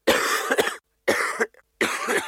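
A person coughs three times in close succession, each cough harsh and forceful, with short silent gaps between them.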